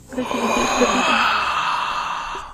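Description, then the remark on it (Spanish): A single long, breathy exhale like a heavy sigh from the person speaking, picked up by the microphone: a steady airy rush that holds for over two seconds before fading, with a faint voiced murmur at the start and no talking. “Se escucha mi aliento, ¿no?”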